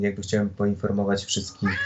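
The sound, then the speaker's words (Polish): A pet cat meows, wanting a door opened, its drawn-out, tonal cries overlapping with a man talking steadily through the short moment. “Y, odezwał się mój kot, więc tutaj Super.”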